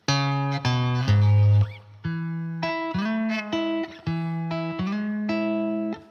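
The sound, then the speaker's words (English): A short guitar riff played on the fifth and third strings around frets 7, 9 and 11, sustained, harmonic-rich notes shifting pitch with audible slides between them, played steadily at moderate loudness with no voices. “So I'm not used to the slides either.”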